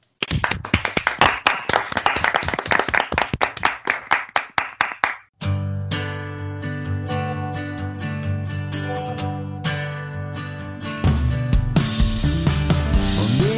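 Steady hand clapping, sent as applause to all scientific researchers for their dedication and work, lasting about five seconds, quick and fairly even, then it stops abruptly as music with sustained tones begins.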